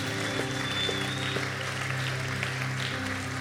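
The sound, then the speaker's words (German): A crowd claps steadily and loudly for the full few seconds, a dense, even patter of many hands, with a sustained low keyboard chord humming underneath. “Lass uns mal einen gigantischen Applaus geben.”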